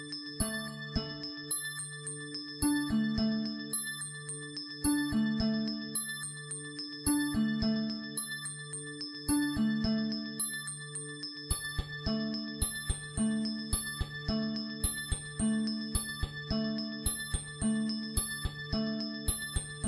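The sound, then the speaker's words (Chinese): Bright bell tones representing the sound of a carbon dioxide molecule ring in a repeating pattern, clusters of three struck notes cycling every couple of seconds over a low sustained hum, with no voices. “这是二氧化碳的声音，当当当。”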